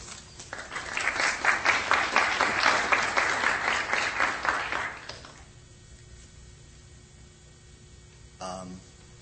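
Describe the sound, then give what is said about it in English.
An audience claps steadily for about five seconds to welcome a guest speaker to a lecture series on Death and Politics, the applause swelling and then quickly dying away, followed by a short quiet stretch and a brief voice near the end. “Please join me in welcoming him.”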